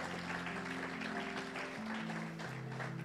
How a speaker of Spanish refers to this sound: Dele un aplauso a esa juventud, hermano, que está aquí, porque yo sé que van a ser trabajadores.